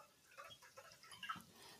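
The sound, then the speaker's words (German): Water is topped up, pouring softly into a glass or cup, a faint, uneven trickle with small splashy bursts lasting under two seconds, with no talking. “Und gießt gerade Wasser nach?”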